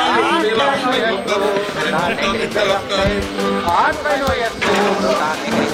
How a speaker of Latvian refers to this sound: Tas ir tikai tipisks bāra skaņas.